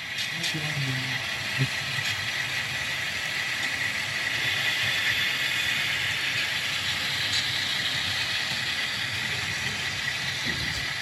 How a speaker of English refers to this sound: So the set of Geeps short of the grade crossing is me, and I'm waiting for this train to come through.